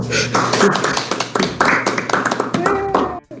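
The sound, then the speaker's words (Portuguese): A crowd applauds steadily for a few seconds as team members are introduced, a dense patter of many hands clapping at once, fairly loud, with a few brief voices mixed in. “Palmas, por favor.”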